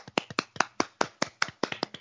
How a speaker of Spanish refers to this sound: Recuperemos el aplauso que se nos ha quedado a medias.